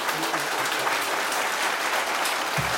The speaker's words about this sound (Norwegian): En stor applaus til Atle Næss, Tom Egeland og Kjell Jørgen Holby.